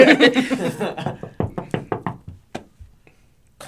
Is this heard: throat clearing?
no